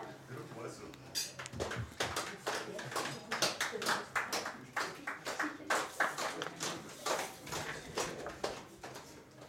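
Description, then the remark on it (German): A group claps and pats in a steady, repeating rhythm, with sharp, bright hits mixed with duller slaps, continuing throughout with a few voices audible underneath. “Dann hätten wir da hinten noch die Patscher und Klatscher, bitte sehr.”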